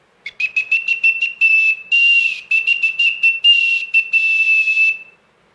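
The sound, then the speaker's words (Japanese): A shrill, steady whistle, loud, blown to converse with and attract birds, broken into a rapid run of short high chirping pips and a few longer held tones, mimicking a bird's call for about five seconds with no talking. “はい、鳥と会話は面白いですね、はい、もうねこの間もやったかね、はい、ちょうど、えーと、この高い音で、ピピピピピピって。”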